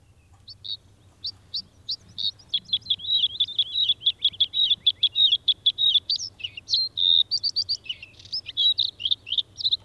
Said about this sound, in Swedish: Blåhaken, eh, den ska vi ta och lyssna på också.